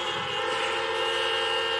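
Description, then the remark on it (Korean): Several car horns honk together at a drive-in concert, the 2020 Lake Music Festival, in a sustained, overlapping blare. The sound is steady and loud across the whole moment, with layered tones, standing in for applause from the audience in their cars. “지금부터 자동차 불빛은 여러분의 눈빛, 그리고 경적 소리는 여러분의 목소리라고 제가 생각을 할 테니까 한 무대 한 무대 소개할 때마다 그리고 끝날 때마다 아낌없는 환호 부탁드릴게요.”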